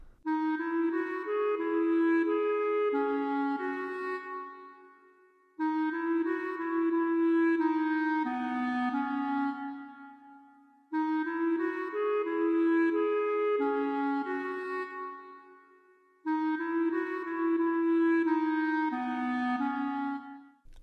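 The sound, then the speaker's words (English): A clarinet plays a short counter melody over orchestral backing, the same phrase repeated four times in a row, each pass about five seconds long. It sounds steady and loud, with no voices. “it now I now add in another uh, counter melody, but this time in the clarinet.”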